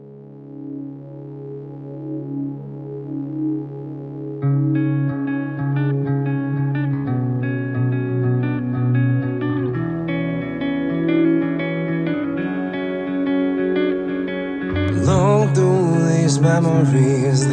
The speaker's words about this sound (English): Um, with that said, uh, I leave with you um, what I was uh, told was his favorite song to play on stage.